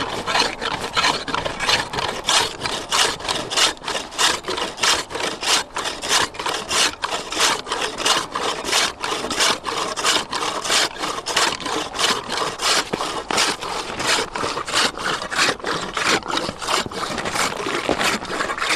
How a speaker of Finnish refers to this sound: Jos jää on vielä hei, liki metrin paksusta, niin se on varsinaista duunia. Entäs sahan ääni? saha, Niin. Kuunnellaan.